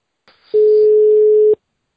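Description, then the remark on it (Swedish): The ringing tone of a phone call to Spain: one loud, steady electronic beep lasting about a second, heard alone after a brief faint rustle, then silence. “ska vi eh, ringa till Spanien då? Vi ringer Spanien och Loka Kallemo.”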